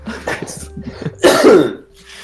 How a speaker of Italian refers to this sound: Vabbè, allora smettiamola di tossire.